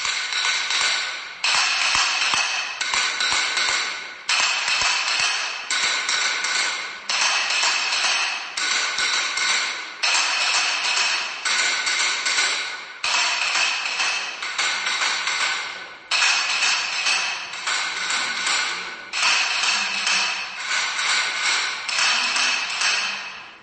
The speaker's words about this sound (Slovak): S pánom profesorom Oskarom Elšekom sa ideme rozprávať o takom zaujímavom hudobnom nástroji, ktorý sa volá klepáč alebo klopáč. Pán profesor, naši poslucháči určite počuli ten zvuk počas bohoslúžieb v piatok.